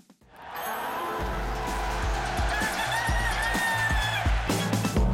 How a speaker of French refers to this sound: Ah oui, vous l'avez entendu, le coq. Quand le coq retentit dans les studios d'Europe 1, ça veut dire qu'on a des médailles.